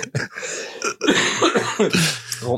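A person coughs several times in close succession, harsh, raspy and loud, with short gaps between the bursts and no talking.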